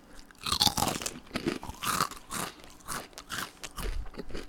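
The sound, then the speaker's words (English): Loud crunching of a crisp fried pork rind snack, a steady run of sharp brittle bites and chews with no talking over it. “So it's crunchy.”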